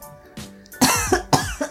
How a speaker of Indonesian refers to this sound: langsung batuk